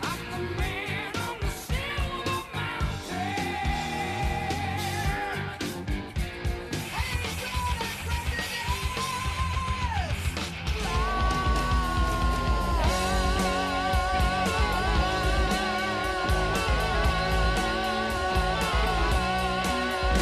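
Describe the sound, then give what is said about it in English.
A loud, dense heavy metal passage with a harsh screamed vocal riding over distorted guitars and pounding drums, sustained and unrelenting for the full stretch. “And it's that sound that makes, you know, dogs and cats cringe three blocks away.”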